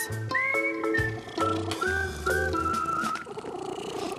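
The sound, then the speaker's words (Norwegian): A voice imitates a cat's purr: rhythmic low rumbling pulses over whistly, cooing tones that rise and hold, fading into a softer trailing rumble at the end. “Og så har han en veldig fin malelyd. Ja, du høres litt ut som en due.”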